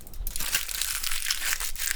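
Aluminum foil left over from a döner being crumpled, a dense, continuous crackling and crinkling that keeps going steadily for the whole moment with no pauses and no voices.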